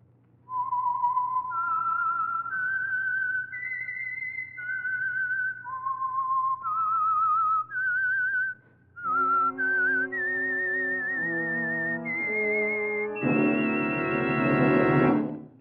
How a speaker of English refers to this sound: And for Sunday evening listening pleasure, the signal to listen for is this whistle that identifies the signal oil program, the Whistler.